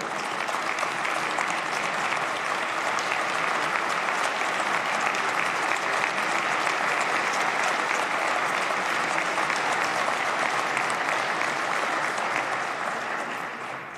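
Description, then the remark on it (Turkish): Sustained applause from a large assembly in parliament, in thanks to health care workers: a dense, steady clatter of many hands clapping at even loudness fills the whole stretch, tapering slightly at the very end. “Sizden onlar için bir alkış istiyorum.”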